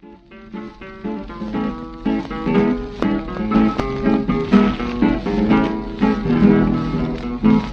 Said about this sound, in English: What song? Well, it's a nice song. It's a tango about the death of a horse. The death uh, of a horse. Yeah, it's uh, it's that uh, the singer or the poet is uh, sadly remembering his horse or you know that guy.